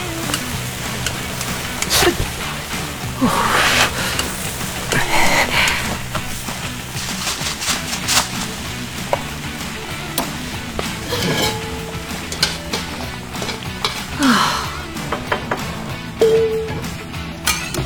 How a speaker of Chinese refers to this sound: 倒一点点进去，给扇贝翻个面，再煎一下，然后撒上蒜末和芝士末就好了。